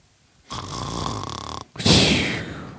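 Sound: person imitating a snore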